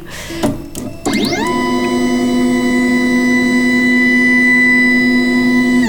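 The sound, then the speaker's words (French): A 3D printer running its calibration, with a small plastic card checking the gap under the print head: a few sharp mechanical clicks, then a stepper motor whine sweeps up into a loud, steady, buzzing tone that holds for several seconds, with no talking. “Comme elle est plastifiée, elle, racle la tête de l'imprimante 3D, donc elle permet de voir si on a une bonne tension ou pas, et si c'est trop proche ou pas assez proche.”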